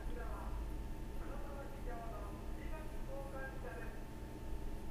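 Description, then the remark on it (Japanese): A Japanese chirigami kokan (waste paper collection) truck's loudspeaker announcement, a faint amplified voice with sing-song tones over a steady low rumble of outdoor background noise. “ちり紙交換ってねうん僕基本的に信用してないんですけどね信用してないっていうのはあのいや真面目なちり紙交換屋さんがいるとしたら申し訳ないんだけども”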